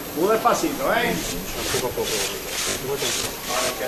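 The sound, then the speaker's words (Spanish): Costaleros' feet drag and shuffle on pavement as they carry a paso with a classic black floral canastilla, in a steady rhythm of rasping scrapes, about two per second, following brief speech at the start. “escucha el rachear perfectamente.”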